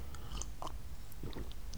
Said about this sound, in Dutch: Eh, even een slokje water.